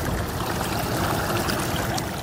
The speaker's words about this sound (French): Les rapides de la Magpie pourraient peut-être un jour faire tourner des turbines électriques, comme sur une des rivières voisines, la Romaine.